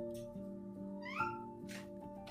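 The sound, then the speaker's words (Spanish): A cat named Julia, shut inside a closet, lets out a short, rising meow partway through, heard over a steady, low humming drone with a few soft hissy noises, and no one is speaking. “Espera, estoy escuchando a la gata Julia arañar.”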